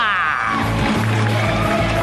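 A crowd applauds with cheers and whoops, a dense, steady wash of clapping and raised voices that stays loud for about two seconds.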